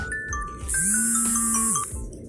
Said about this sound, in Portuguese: O despertador começou a tocar aqui, gente. Se sair barulho aí, você sabe por que foi.